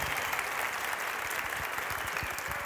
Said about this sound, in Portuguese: Então vamos aplaudir Jesus por isso, gente, se você pode aí no seu lugar. Graças a Deus por isso.